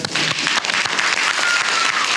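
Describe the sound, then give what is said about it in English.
A steady burst of applause for a guest on a show, many hands clapping in a dense, continuous patter at a fairly loud, even level with no voices over it. “Clap it up okay? for this brother, man.”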